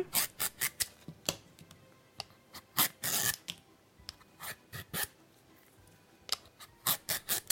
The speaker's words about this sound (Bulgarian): обелвам.